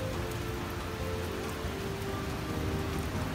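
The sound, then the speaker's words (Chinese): Steady, dense rainfall from an afternoon thunderstorm in the mountains of Nanxi District, Tainan, hisses evenly throughout, with a constant patter of drops and a low, continuous rumble underneath. There's no talking and no distinct thunderclap stands out. “山岚还有雷声，实在是太浪漫了。”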